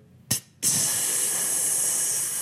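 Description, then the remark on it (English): A short puff of air, then a loud, steady rush of pressurized gas hissing continuously as an airlock at the Zurich Orbital space station fills with oxygen, sustained with no talking. “and you look over to the side and you see that the airlock is being filled with uh, uh, oxygen”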